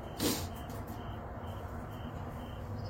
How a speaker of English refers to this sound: enjoy being able to come out here and sit and talk with you guys in the mornings, looking up at the morning sky, listening to these annoying crickets.